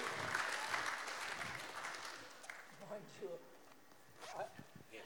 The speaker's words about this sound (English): we better give him a round of applause to just encourage him.